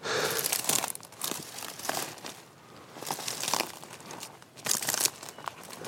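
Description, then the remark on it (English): Dried bracken stems crunch and crackle underfoot as someone walks on a hillside in late winter, in a steady walking rhythm, each step a burst of snapping and rustling with short lulls between, no voices present. “the sound of dried bracken stems under my feet.”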